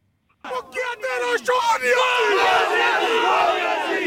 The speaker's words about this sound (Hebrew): בואו נשמע קולות של תומכי האופוזיציה הלילה, זמן קצר אחרי ההחלטה להדיחו בבירה אסלאמבאד, הנה.